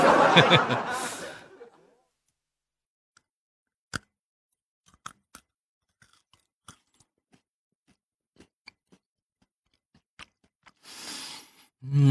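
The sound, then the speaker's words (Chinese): Crisp, irregular crunches and sharp clicks of someone biting and chewing a crispy quinoa chocolate snack, spaced out over several seconds, with breathy rustling at the start and end and no talking. “哎，我再给你们吃一块尝尝啊，不是尝尝，是我尝尝，你们听听啊。”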